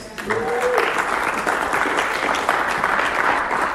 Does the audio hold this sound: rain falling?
no